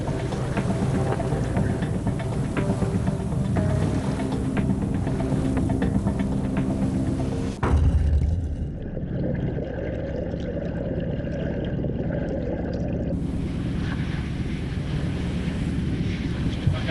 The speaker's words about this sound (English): that was the keel. Wasn't fun, eh? never nice when your boat touches bottom. It's the one thing that you always shit yourself for, and we did it. Anyway, we got away with it. I think we just hit the, the keel.